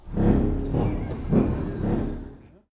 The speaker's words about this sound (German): Und wenn man das anmacht, dann bläst die Luft in das Wasser und gibt dann diesen Effekt. Dann haben sie dazu. Oder auch den Elefantenfurz.